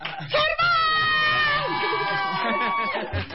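A lively crowd cheers and shouts loudly for the players in a banjo contest, with a few high, sustained yells ringing over the noisy din for a few seconds.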